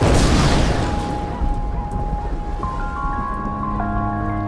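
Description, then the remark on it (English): A loud thunderclap cracks open, then rolls into a long, deep rumble as rain hisses beneath it, with sustained eerie tones gradually rising in the background. “It sounds like thunder.”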